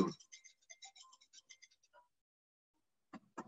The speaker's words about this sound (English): hold on, my phone is going a little bit